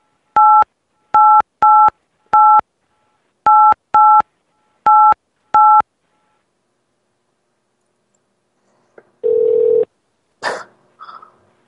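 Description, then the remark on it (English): A rapid series of touch-tone beeps as a 10-digit phone number is keyed in, loud with short even gaps, followed by a brief buzz and a couple of soft clicks after a pause. “Otherwise, please enter the 10 digit telephone number you are calling.”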